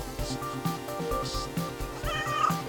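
A pet house cat meows repeatedly, a few drawn-out wavering cries with short gaps between them, clear and fairly loud.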